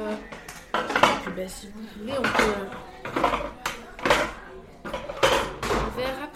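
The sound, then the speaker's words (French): Repeated hard clattering and knocking as chairs are stacked and put away while the room is tidied, in irregular bursts, with voices murmuring in the background. “On va ranger les chaises, on va ranger la salle”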